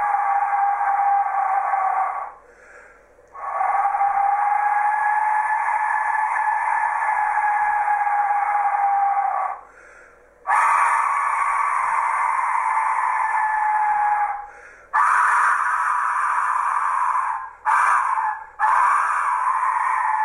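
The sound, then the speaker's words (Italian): Eerie, scream-like wails from skull-shaped whistles, loud and shrill, sounding in several long sustained blasts separated by brief pauses, with overlapping tones and no voices. “Il suono prodotto da questi strumenti è raccapricciante. Personalmente mi fa pensare alle grida di dolore della persona a cui è stato profanato il teschio.”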